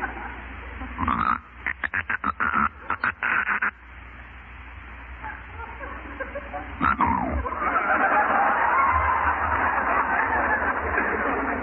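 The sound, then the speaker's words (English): A sleeper snores in the self-awakening (autoresuscitation) variety, breaking into a rapid run of choppy, snorting gasps, then a loud snort followed by a long, rough, rasping breath that swells and holds, as if startling awake. “Which extends itself, ultimately, and I think I may say without fear of successful contradiction, almost inevitably, into type 8, the acme of snoring. This is the autoresuscitation or self awakening variety.”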